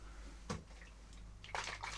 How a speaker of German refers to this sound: Das ist Wasser. Und fallen ist ah, ins Wasser fallend. Plüsch.